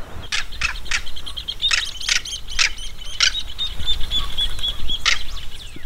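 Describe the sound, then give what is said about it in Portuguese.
A southern crested caracara (carcará), a very common bird in Brazil, gives a series of harsh, rasping cackles, about nine short bursts in an irregular rhythm, loud, while a thin high twittering continues faintly in the background. “Vamos ouvir outra? Agora o carcará.”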